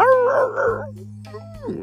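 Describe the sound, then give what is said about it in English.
A person imitates a wolf's howl with a loud wavering cry, then a softer falling one that trails off, over a steady low electrical hum. “I can hit a wolf in the eye. He go,”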